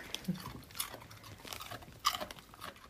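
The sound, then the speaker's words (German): A female dog crunches on a carrot in the background, a series of sharp, irregular bites and chewing crackles with brief pauses between them, fairly quiet and with no talking. “Das kleine Raspeln im Hintergrund ist ihre Hündin Anuk, über die es heute auch geht, die sich gerade eine Möhre schmecken lässt.”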